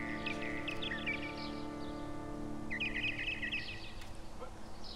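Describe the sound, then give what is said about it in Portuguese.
Several birds chirp and twitter in quick overlapping bursts, busiest at the start and again midway, over a steady low humming drone that runs throughout. “E agora, nesta cidade, por nome de Passaredo, mil pássaros pelos céus voam sobre o arvoredo.”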